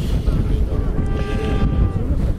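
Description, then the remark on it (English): A Citroen rally car engine on a dry 20-kilometre stage drones in the distance as it vanishes behind a hill, a low, steady rumble with a faint tonal whine, mixed with wind buffeting the microphone. No one speaks. “Hard to tell in the distance as he vanishes behind the hill.”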